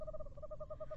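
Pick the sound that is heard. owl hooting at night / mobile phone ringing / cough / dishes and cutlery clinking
owl hooting at night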